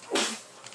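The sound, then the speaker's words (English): One sharp sneeze: a sudden burst of breathy, hissy noise with a brief low vocal edge, quickly trailing off into a soft hiss. No one speaks. “Bless you. Excuse me.”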